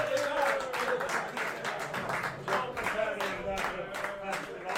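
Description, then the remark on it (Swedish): A crowd applauds the winner of a quiz steadily with dense, overlapping, loud hand claps, while voices chatter and call out underneath throughout. “Stor applåd!”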